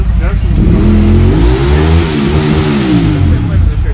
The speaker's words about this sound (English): Alright, see what that is. Motorcycle.